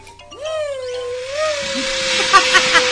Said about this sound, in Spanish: Si se escucha ruido es un vecino, ¿eh? les juro que es un vecino. ¿Qué hace? Taladra.